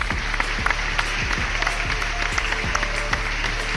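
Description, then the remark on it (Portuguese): Steady applause from a crowd giving a standing ovation for the comic artist Renato Guedes, many hands clapping at once in a dense, even wash of sound that holds at the same loudness for several seconds, with no voices over it. “Ele tá, cara, é, é, palmas de, de pé para ele.”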